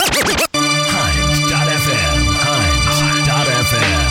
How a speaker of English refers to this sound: It's just some nice, good Canadian hip hop and R&B for you to listen to. Yes. So here it is, yes.